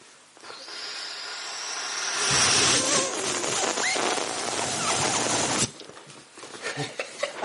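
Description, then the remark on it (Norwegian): A person imitates an airplane taking off with a rushing, hissing mouth noise that swells louder for about five seconds, then cuts off abruptly, leaving faint scattered sounds. “Lyden av et fly som tar av.”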